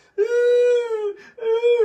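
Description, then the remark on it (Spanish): A voice mimics whimpering crying with two drawn-out, high, quavering wails, loud, separated by a short breathy catch. “Le digo, pues güey, se requiere chillar, ¿no? O sea, la finalidad es chillar, pues tampoco a chillar, ¿no?”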